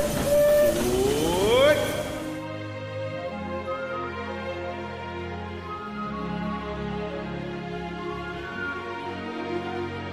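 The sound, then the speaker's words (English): The Disneyland Limited steam train of the Disneyland Railroad pulls away at Disneyland for a grand circle tour of the Magic Kingdom, opening with a loud hissing burst and a rising whistle, then settling into a steady rumble with sustained droning tones. “The Disneyland Limited now leaving for a grand circle tour of the Magic Kingdom.”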